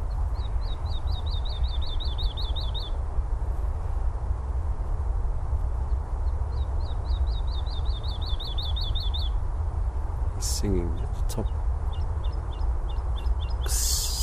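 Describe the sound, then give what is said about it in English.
A woodlark sings in spring on Chobham Common in Surrey, two phrases of rapid, repeated, high, slurred notes, each lasting a few seconds, over a steady low background rumble, followed by a few brief knocks. “Celebrate spring and the wonderful song of the woodlark on Chobham Common”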